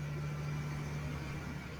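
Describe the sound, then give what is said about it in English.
A steady, low engine drone from farm tractors and equipment rolling around on a morning holds at a constant, fairly quiet level throughout, with no voices and no clear rise or fall as it runs. “if you hear noise in the background, that would be just all the farm tractors and equipment that are rolling around this lovely morning.”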